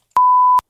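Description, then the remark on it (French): A single steady electronic beep at a fixed mid pitch, lasting about half a second with abrupt clicks at start and end, loud and isolated against silence, like a censor bleep, hiding a word to be guessed in a French-language quiz question. “Donc, on va avoir besoin de vous, évidemment, pour pouvoir compléter ce bip-là.”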